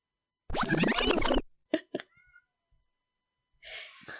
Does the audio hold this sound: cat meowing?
yes